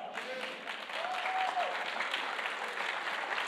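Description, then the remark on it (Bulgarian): A crowd applauds steadily, a dense wash of many hands clapping at an even level for several seconds, with a brief faint whistle-like tone early on. “О, ръкопляски първо, но нека да ти кажа и втората част.”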